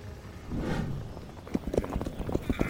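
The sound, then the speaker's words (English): Horse hooves galloping in a quick, uneven run of sharp thuds over a steady rushing noise, the beats growing louder and more distinct toward the end, as riders push their horses harder to pull away from pursuers. No one speaks. “Ride harder! We're pulling away from them.”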